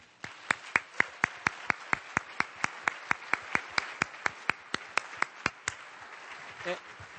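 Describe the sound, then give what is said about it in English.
Applause for everybody who helped make the event happen, heard as crisp, evenly spaced claps, roughly three per second, fairly loud and steady for almost six seconds before stopping abruptly, leaving a brief faint murmur. “So let's just pause and stop and give a great round of applause for everybody that has helped make this happen.”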